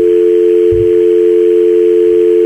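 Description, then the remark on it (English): A steady, loud telephone dial tone hums continuously from a broadcast host, a device that brings a telephone line into a mixer, as an outgoing call is placed. There is a brief low thump near the start and no voices. “I, I show this thing called a broadcast host, which let me just hit call real quick here and uh, take a listen to this.”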